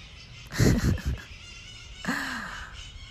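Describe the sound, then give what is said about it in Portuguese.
Two harsh, raspy squawks from a maritaca parakeet, a quick choppy burst followed a beat later by a longer drawn-out screech, over a steady background hiss, with no talking. “Então o meu cachorro latindo, a maritaca tá maritando.”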